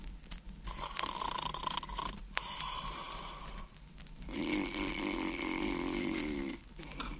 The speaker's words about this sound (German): Als sie auf die Wiese kam, so lag da der Wolf an dem Baum und schnarchte, dass die Äste zitterten.